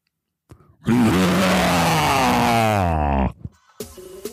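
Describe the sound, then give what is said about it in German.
A person does a loud, gravelly roar imitating a white tiger, one sustained growl of about two and a half seconds that rises and then falls away, followed by a short breathy sound. “Und jetzt zum Abschluss noch ein, ein Raubzebra, also ein weißer Tiger.”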